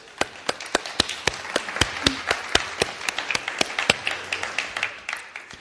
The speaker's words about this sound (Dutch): Zullen we God een applaus geven voor dat wonder?